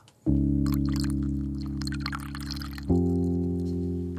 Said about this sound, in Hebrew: אתה צריך פה לעשות רעש של מים. מים.